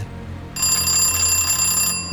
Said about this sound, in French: Bart sonne à la porte. La vache Avec une sonnette comme ça, elle doit louper aucune visite